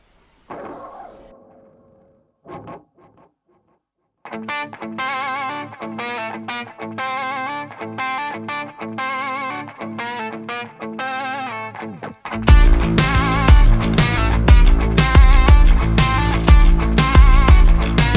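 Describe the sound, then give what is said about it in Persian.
A music track starts after a brief sound, with a steady rhythmic melody that grows into a louder, fuller, heavily distorted section with strong bass and drums; no one talks. “میگم بریم یه موزیک گوش کنیم برگردیم به وایس بچه ها گوش بدیم و متناشون”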